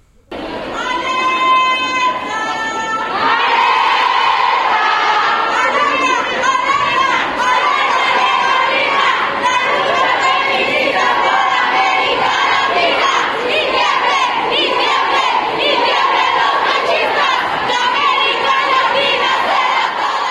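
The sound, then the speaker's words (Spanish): The first contingents of an 8M women's march, students from FES Acatlán and CCH Naucalpan, arrive chanting and shouting in unison, many voices blending into a loud, sustained roar with rhythmic group cries that continue steadily throughout. “Por lo pronto escuchemos ya los primeros grupos y contingentes que empiezan a llegar a esta marcha del 8M.”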